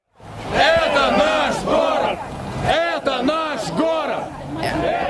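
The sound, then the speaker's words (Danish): A large crowd chants in unison as it marches through the streets of Moscow, voices rising and falling in repeated rhythmic phrases, loud and continuous like a street march. “Det, det er vores by, og der marcherede man jo.”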